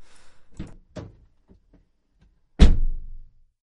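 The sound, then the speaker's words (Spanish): Soft shuffling and a few light clicks as someone climbs into a rented car in the United States, followed by a single heavy car door slam with a brief low, booming thud. “A ver, espera un momentito que me voy a subir al coche.”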